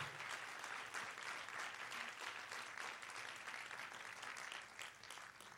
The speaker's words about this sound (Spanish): Y si usted lo cree, denle un aplauso fuerte a Él. Vamos fuerte a Él.